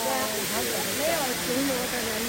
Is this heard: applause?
no